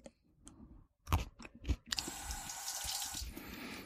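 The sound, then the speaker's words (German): Someone bites into a small chili pepper with a few crisp crunches, then keeps chewing while a steady rushing, water-like hiss fills the rest of the moment. No one speaks. “Ich probiere jetzt mal ein kleines Stück.”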